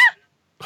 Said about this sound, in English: Um, well, I haven't started yet. I'm about to pop open a can. There it is.